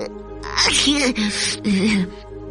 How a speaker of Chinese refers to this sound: 有个人突然打了个喷嚏，哦，是喷嚏先生。